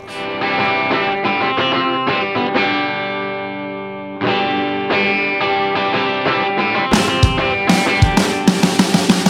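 A band plays a full, loud song with a harmonica over driving electric instruments, steady and dense throughout, with sharp rhythmic hits building toward the end and no voices.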